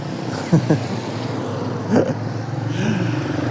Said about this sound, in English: I'm just walking back from my morning coffee. You hear the cars.